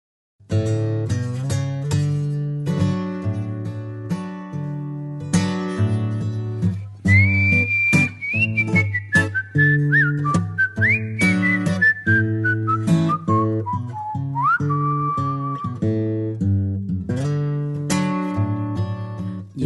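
A song opens with steady plucked accompaniment, then a clear whistled melody rises over it, gliding and wavering through a descending phrase before the instruments carry on alone.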